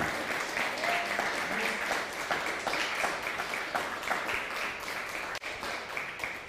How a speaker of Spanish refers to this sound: Un fuerte aplauso.